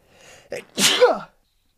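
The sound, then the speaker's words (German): A single loud sneeze: a brief breathy inhale builds up, then a sharp explosive burst trailing off in a falling voiced tail. No talking. “ich, scheiße, ich muss niesen.”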